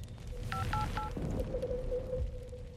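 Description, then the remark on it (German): Three quick beeping keypad tones from a mobile phone with a nearly empty battery being dialed to call the emergency number during a wildfire in Butte Creek Canyon, evenly spaced and fairly clear, followed by a steady ringing tone over a low rumbling background. “Sie wählt wieder den Notruf.”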